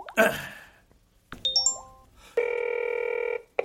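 signal or alarm, telephone dialing and ringing

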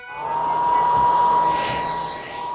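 household object, hair dryer blowing

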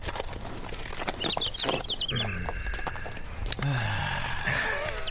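bird, birds chirping in spring

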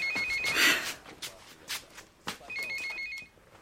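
signal or alarm, telephone ringing

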